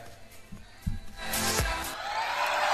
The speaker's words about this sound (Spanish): No tengo mucho más para decir, simplemente lo que seguiría sería un aplauso.